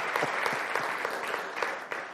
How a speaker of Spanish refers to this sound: De eso un aplauso a usted mismo.